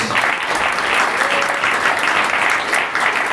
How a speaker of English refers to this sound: Congratulations! So give applause.